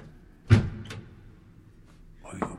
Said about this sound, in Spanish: Ahora se abre otra puerta y se cierra